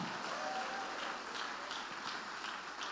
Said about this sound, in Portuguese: Oh glória, vamos aplaudir.